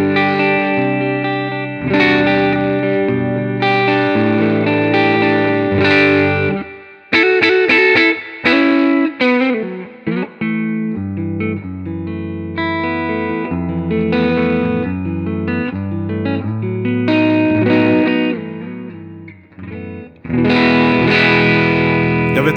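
Electric guitar with newly fitted pickups, played on its neck pickup through a recording rig, playing sustained distorted chords and single-note lines with a warm, rounded tone and a chorus-like shimmer, loud and continuous without any talking.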